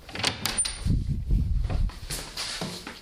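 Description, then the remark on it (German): A door is opened: a few sharp clicks of the latch, then a low, drawn-out creaking rumble as it swings, fading into a soft settling sound. “Na los, Robin, mach die Tür auf.”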